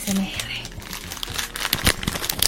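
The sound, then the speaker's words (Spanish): Plastic wrapper crinkling as a packet of two fortune cookies is handled in quick, irregular rustles for a couple of seconds, with a low background hum. “Aquí hay una cosa hay una cosa que tengo aquí. Adivinen qué es. Sí. Es una galleta de la fortuna.”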